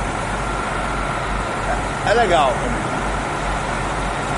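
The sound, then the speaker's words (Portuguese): Steady roar of road traffic with a deep engine rumble of buses passing, continuing throughout; a voice speaks briefly partway through over the noise. “Aqui só tem ônibus e tal. É uma bagunça, assim, uma agonia retada, mas vamos lá.”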